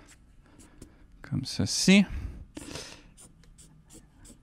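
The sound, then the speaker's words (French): A pen scratches across paper in a few quick strokes, drawing the sword of the character Rex, moderately loud, with a brief spoken phrase in the middle and soft scribbling continuing afterward. “Et je vais faire son épée.”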